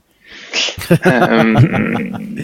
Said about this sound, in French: À tes souhaits, 120.